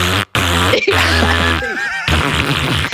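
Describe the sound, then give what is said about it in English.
A voice imitates the distorted, booming bass of a song as heard through a phone recording, with a buzzy, crackly mouth sound pulsing in uneven bursts, loud, for about three seconds. “The bass always sounds like this.”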